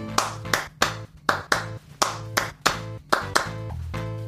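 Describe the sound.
Sharp hand claps beat out the typical 3-2 clave rhythm of Cuban son in a song's hook, three claps then two, repeating crisply over a steady low musical drone with chords underneath; the full instrumentation then carries the rhythm in unison.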